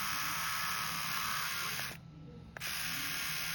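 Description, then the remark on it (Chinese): A 3000-series electric shaver bought from Pinduoduo, with an indicator light on, runs with a steady, loud buzzing hum and a thin high whine, cuts out for about half a second, then starts up again and keeps buzzing. “同款剃须刀为什么拼多多能比京东便宜60元？”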